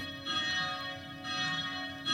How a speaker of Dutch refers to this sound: Dus eerst hoor je de klokken.